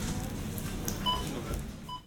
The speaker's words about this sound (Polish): Jak mieliście okazję usłyszeć, ostatnią płatność dokonywałem zegarkiem. Przebiegła ona bez y, żadnych właściwie problemów. Wszystko się udało. Mm, zegarek, tak jak powiedziałem, zadźwięczał. Zadźwięczał również y, terminal, e, także płatność została